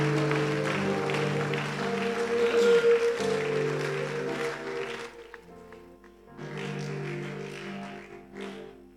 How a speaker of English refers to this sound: Oh, why don't you give a mighty clap offering unto Jesus?